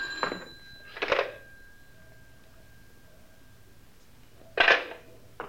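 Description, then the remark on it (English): A telephone rings with a call from a suspect, in short bursts, two quick rings together, then a pause of a few seconds before another ring. The sound is moderately loud with no one talking. “Suspect's on the phone now.”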